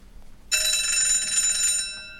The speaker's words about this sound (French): Maître, je crois que c'est votre téléphone qui sonne.